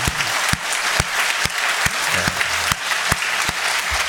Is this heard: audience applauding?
yes